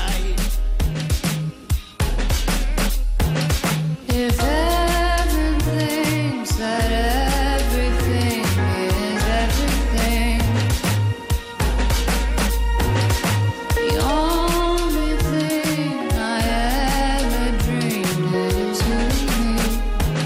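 A soul song with electronic production plays loud and continuously, a deep pulsing bass and steady beat under a smooth, gliding vocal melody.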